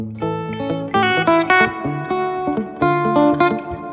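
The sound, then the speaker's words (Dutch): Electric guitar chords ring out with a washy reverb tail, strummed in a loose rhythm of several sustained chords, fairly loud, with no voices. “nee, dit is een hele fijne gitaar. Klinkt heel mooi.”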